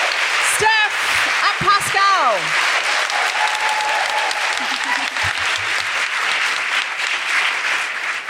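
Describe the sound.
Sustained audience applause, a dense steady patter of many hands clapping throughout, with a few whoops and cheering voices rising over it near the start.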